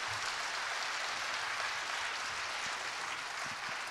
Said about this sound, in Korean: 다시 한번 격려의 박수 부탁드립니다.